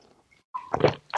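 A quick sip of coffee: a short wet slurp followed by a brief swallowing gurgle, heard alone.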